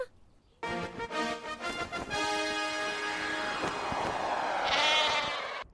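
Several sheep bleat together in a loud, overlapping chorus of wavering cries that carries on for about five seconds, without any talking, in the last warm days of summer.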